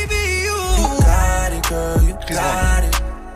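A pop song plays with a smooth sung melody over deep bass thumps and crisp percussion hits, steady and full-volume throughout, with no talking over it.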